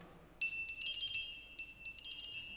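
A glockenspiel plays a quick, high, chiming finch birdsong motif, a bird theme otherwise played on clarinet: bright metallic notes rippling in two short bursts with ringing overtones, fairly quiet and with no voices.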